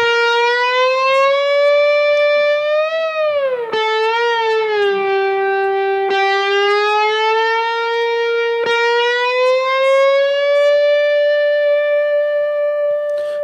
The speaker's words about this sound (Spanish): Ah, Evidentemente, al frotar el acero contra las cuerdas de mismas de acero, pues tiene, le, da, un tipo de brillo. Vamos, a, escucharlo.